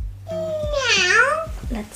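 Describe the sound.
A person imitates a cat's meow: one drawn-out, whiny vocal meow that dips and rises in pitch, fairly loud, followed by a short vocal sound at the end.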